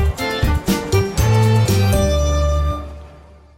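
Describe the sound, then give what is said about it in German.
A short musical radio jingle with bright, punchy chords over a steady low bass, building through a few quick stabs into a sustained final chord that rings out and fades. “Das hat dann zum Beispiel vielleicht so tönt, wie in dem Jingle, den ich damals mal am Radio gemacht habe.”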